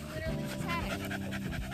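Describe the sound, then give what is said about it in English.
A dog pants quickly and steadily, short breathy huffs repeating in a fast rhythm, with a person's voice faintly in the background. “He's a good dog.”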